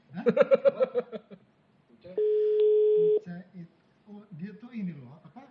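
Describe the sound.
A steady, unbroken telephone dial tone of an outgoing call sounds for about a second at moderate loudness, sitting between stretches of people talking before and after it.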